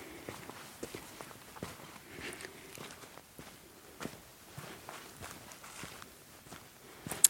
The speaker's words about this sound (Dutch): Ik ga nu naar ze toe lopen.